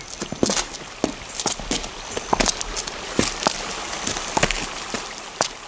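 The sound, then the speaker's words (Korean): Footsteps walk at an unhurried, fairly steady pace among trees on a stroll after a meal, each step a crisp crunch against a constant soft outdoor hiss, with no voices. “우리는 소화도 시킬 겸 산책 삼아 나무들 사이를 거닐었고 걷는 동안 가늘게 흘러내리는 물소리가 점점 분명해지는 걸 느꼈다.”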